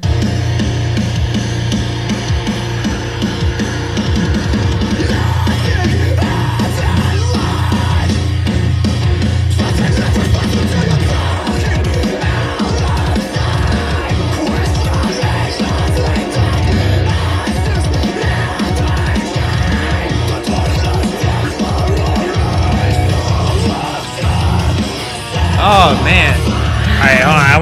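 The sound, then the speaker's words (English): A loud, dense rock song plays throughout, with heavy distorted guitars, pounding drums and shouted vocals, all at a steady, full volume. “I like the mix as far like I can hear the guitars mm-hmm.”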